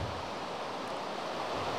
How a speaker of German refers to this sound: Ich weiß aber auch noch, boah, es regnet gerade so dolle, hörst du das bei mir?